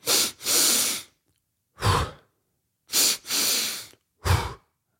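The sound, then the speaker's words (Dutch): Two deep, airy breaths in through the nose, then one short, sharp puff out through the mouth. The pattern repeats twice with brief pauses and no talking. “ik door twee keer diep door mijn neus te ademen. En dan de mond kort uit te, kort uit te blazen.”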